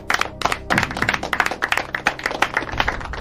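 Loud, steady applause from an audience welcoming the second contestant of the show ¿Quién quiere ser progresista?, dense overlapping claps filling the whole stretch with a bright, crackling texture and no voices on top.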